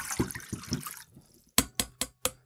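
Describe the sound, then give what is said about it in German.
About one litre of cold distilled water pours and splashes into a pot for about a second, then stops, followed by four sharp, evenly spaced knocks or drips. No one speaks. “Gieß das mal hier in den Topf rein.”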